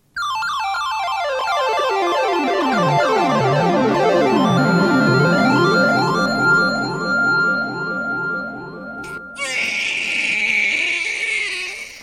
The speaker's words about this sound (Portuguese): Estás a ouvir, Daniel, um bebê a chorar?